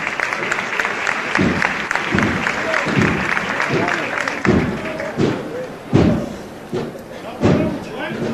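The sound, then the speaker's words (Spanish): A crowd breaks into sustained applause as the procession float of the Señor de las Tres Caídas is raised in Triana, dense clapping with a few heavier thumps standing out, while voices murmur underneath in a large outdoor gathering. “Vuelven a romper los aplausos.”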